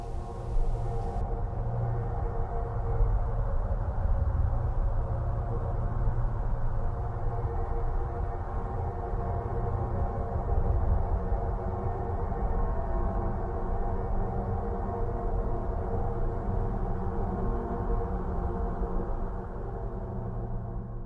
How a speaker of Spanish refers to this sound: Ahora mire, quiero que por favor escuchen los eh, sonidos de algunos planetas y de otros astros que nosotros conocemos. Por ejemplo, así suena Júpiter.